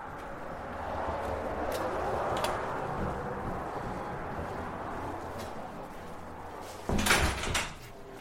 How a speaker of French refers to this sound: Je pousse les portes du Colorado River Museum, un musée sur l'histoire de la région.